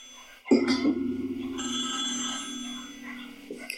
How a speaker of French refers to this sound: Ah, ça me stresse déjà quand le téléphone sonne.